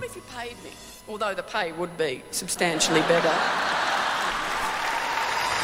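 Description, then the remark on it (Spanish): An audience at a stand-up comedy show, heard in a trailer, bursts into laughter, voiced rising chuckles and hoots, then sustained clapping swells in and holds steady as a loud, dense wash of applause until the end. “Risas, aplausos, su rutina.”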